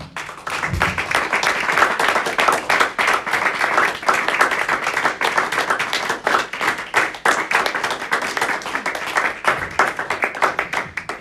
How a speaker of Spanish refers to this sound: Gracias le damos. Un aplauso al Señor.